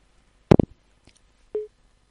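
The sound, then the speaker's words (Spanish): A sharp clatter of a caller's phone hanging up, a faint click, then one short, steady electronic beep of a busy tone on the line. No voices. “oh creo que se ha colgado tengo, tengo la impresión de que de que no no ha entendido lo de lo del manos libres”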